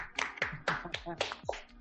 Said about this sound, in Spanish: Un aplauso para. Bravo, bravo.